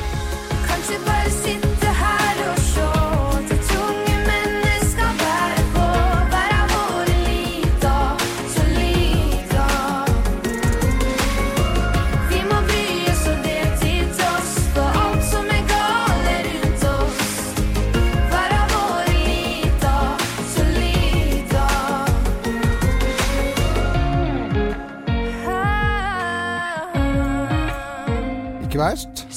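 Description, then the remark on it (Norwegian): A polished pop song, the entry that won Melodi Grand Prix Junior on Saturday, with a lead singer over a full, driving band, loud and steady throughout, easing toward the end as the voice holds long, wavering notes. “Men eh, vi kan høre på låten som eh, vant på, på lørdag i Melodi Grand Prix Junior,”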